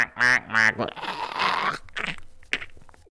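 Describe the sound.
Two loud, nasal duck quacks in quick succession, followed by a rough crunching rustle and some brief voices toward the end.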